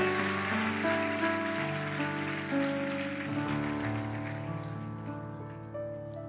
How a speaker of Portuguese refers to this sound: Aplauda ele bem forte.